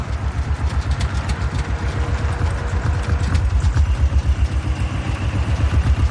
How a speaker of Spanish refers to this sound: El coche de los hippies circula marcha atrás por la calle de la urbanización.